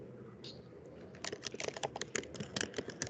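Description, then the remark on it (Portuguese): Rapid, hurried clatter of keys on a computer keyboard, a dense run of sharp clicks starting after a brief quiet moment and continuing steadily, with no speech. “Eita, tem alguém digitando aí com pressa.”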